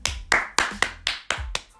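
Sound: one person clapping hands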